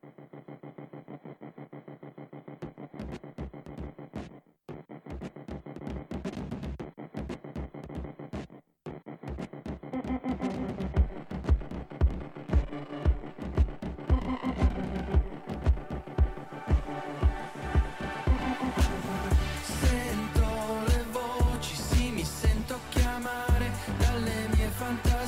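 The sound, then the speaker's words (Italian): The intro of an electronic music track released in 2016: a droning, throbbing opening with a steady pulsing beat and two brief dropouts, gradually building into a fuller, brighter, louder groove. No one speaks. “Un bel pezzo, un po' lungo, ma da ascoltare fino in fondo perché è veramente valido.”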